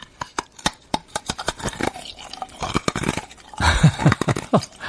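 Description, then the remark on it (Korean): Crunching of ice being chewed, played as an ASMR sound, a rapid series of sharp cracks and crackles followed by denser grinding bites, loud and intimate with no talking. “자, ASMR로 한번 다시 들어볼까요? 얼음 씹어 먹는 소리.”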